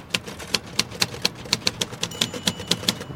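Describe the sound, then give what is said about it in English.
Steady, rapid clacking of typewriter keys, a dozen or so sharp strikes in quick succession with a faint bell-like ping, clear with no voices. “I'm writing. Like you'll be when you start punching those keys.”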